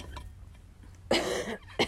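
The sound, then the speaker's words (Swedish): A fairly loud cough from a person with some asthma problems: one harsh, rough burst followed a moment later by a shorter second hack, with quiet room tone before and no talking. “Eh, om jag hostar så är det för att jag har lite astmaproblem så att ni vet det.”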